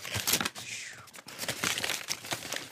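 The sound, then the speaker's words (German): A plastic bag crinkles and rustles as it is unpacked, with irregular crackling bursts running for a few seconds and a faint voice murmuring underneath. “Okay, dann versuch das mal geräuschlos auszupacken.”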